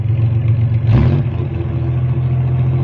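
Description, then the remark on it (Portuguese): A car engine rumbles steadily, then briefly surges in a loud rev before settling back into a sustained engine drone as the car is driven as fast as possible toward a bus station at night. No one speaks. “Ricardo Antônio entrou no seu carro e foi o mais rápido possível em direção à rodoviária.”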